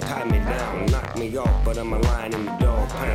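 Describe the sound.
A hip-hop track with a man rapping rhythmically over a loud, steady beat, deep booming bass kicks landing about twice a second under layered synth chords.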